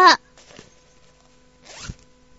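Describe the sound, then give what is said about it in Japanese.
A zipper on the back of a Rilakkuma plush toy is pulled open in two quick, rasping strokes, the first short and bright, the second a longer scratchy zip after a brief pause, fairly loud with no talking. “ねえ、後ろにチャックついてるよ。”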